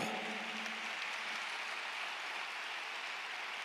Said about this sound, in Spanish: Todos los que aquí son nuevas criaturas, por favor denle un aplauso fuerte al Señor.